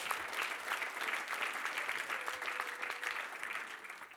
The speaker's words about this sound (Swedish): Det är så. Det är verkligen så. Det är så. En applåd kan de få. Tack Jesus.